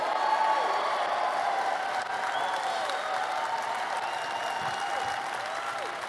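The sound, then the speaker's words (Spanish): Sustained applause from a crowd clapping loudly for Jesus, a dense steady wash of many hands clapping at an even loudness for the whole stretch, with faint voices and cheers mixed in. “Vamos, apláudele fuerte.”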